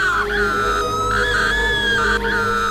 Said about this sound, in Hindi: चीखने की आवाजें आ रही थी